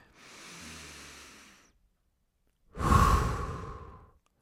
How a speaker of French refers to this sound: Dans l'exercice ici, on garde ça super simple c'est simplement de inspirer profondément, de retenir quelques secondes et d'expulser, de relâcher, de laisser sortir sans retenir notre euh, l'air qui est dans nos poumons ou notre respiration.